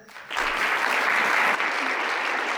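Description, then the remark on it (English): Audience applause welcoming John Edmonds and Jessica Bell Brown breaks out after a brief quiet start and holds steady, a dense wash of many hands clapping without letup for a couple of seconds. “Without further delay, please help me welcome John Edmonds and Jessica Bell Brown.”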